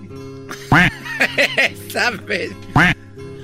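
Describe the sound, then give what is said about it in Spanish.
A voice imitates a duck, giving a series of nasal quacks: two loud, drawn-out ones bracketing a quick run of shorter, choppier quacks in between. “Pisó un pato.”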